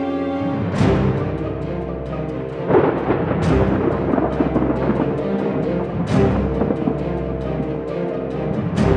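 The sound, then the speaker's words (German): A raging storm roars steadily and loudly, with several booming thunder crashes breaking through at irregular intervals over a dense wall of rushing wind and rain. No one speaks. “Er schlug dieselbe Richtung wie der Offizier ein und verschwand in den tosenden Sturm.”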